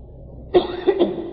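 A sudden sneeze bursts out of near silence, a sharp explosive onset followed by a short, voiced, slightly rough tail with a couple of quick pulses, fairly loud and heard on its own.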